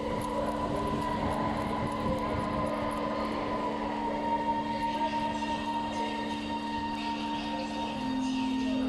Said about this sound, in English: There's no one there. It's like a 10 to 15 carriage train and it's completely empty. I'm the only person on this thing, which is unheard of.